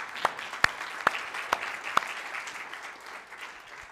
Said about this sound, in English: Yeah, you guys are clapping.